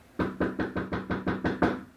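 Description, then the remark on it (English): About eight firm knocks by police on the door of apartment four at 3003 Springfield Drive, in quick, steady succession, loud, with a slight hollow ring after each rap and no voices. “And this is the first time that you see the police coming and knocking on the door of apartment four at 3003 Springfield Drive.”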